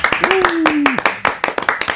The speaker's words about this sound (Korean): 야, 이 박수 소리 오랜만이다.